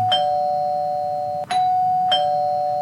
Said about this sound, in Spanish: tócale el timbre